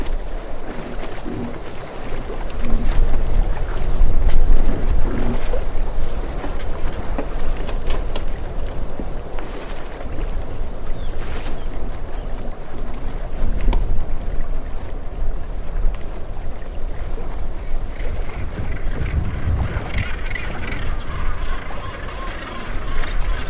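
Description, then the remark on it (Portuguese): A boat moves steadily through the waters of the Mediterranean along the Greek coast, with a continuous low rumble of wind and churning waves, broken by occasional splashes and gusts. “Enquanto a embarcação navega suavemente pelas águas do Mediterrâneo, vamos admirando a paisagem única do arquipélago.”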